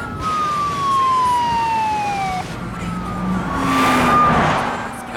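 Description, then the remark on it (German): Police sirens wail with long, falling tones over steady traffic rumble, growing louder as the cars close in; no one speaks. “Damit umfahren sie kurzerhand eine Straßensperrung und machen so die Polizei auf, mich, auf sich aufmerksam. Die kommen immer näher”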